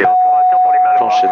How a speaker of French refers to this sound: c'est une alarme qui dit que j'ai éteint la réchauffe pito. Donc on, peut chauffer le pito si jamais il y a de la glace.